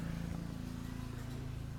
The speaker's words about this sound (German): Ein Rasenmäher. Was kann das nur bedeuten?